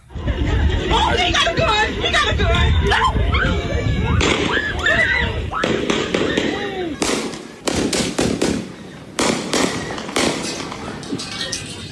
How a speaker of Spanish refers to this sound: Y el muchacho hizo su trabajo, dijo aquí no, y disparó, disparó. Escuchen cómo en la cabeza le dispara a un joven.